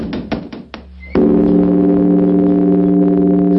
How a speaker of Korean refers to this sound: 범종의 긴 울림이 산자락에 퍼지고 삼남한상이 그 소리에 하나가 됩니다.